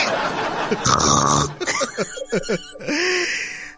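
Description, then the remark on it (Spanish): A voice mimics snoring with gurgling throat noises: two long, raspy snore-like rattles separated by a run of short, wet throaty sputters, fairly loud. “Está gargajeando y gorgoreando.”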